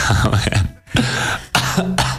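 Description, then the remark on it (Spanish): A loud cough from someone who is ill comes in several harsh, raspy bursts, breaking off briefly before a final throaty round. It sounds chesty and strained, like someone clearing a sore throat. “Y nos recibe una pedazo de tos.”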